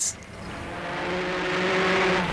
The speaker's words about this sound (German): Und nun seit ungefähr einer halben Stunde schießen und knattern und rattern diese Rennwagen, diese fürchterlich aussehenden Dinger hier den, äh, die Straße empor. Also da knattert es und staubt es wirklich.